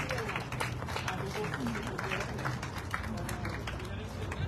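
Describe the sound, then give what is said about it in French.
A group of people applauding one another, with dense overlapping claps that hold steady and fairly loud throughout, while some voices and chatter mix in underneath. “Et voilà, on s'applaudit.”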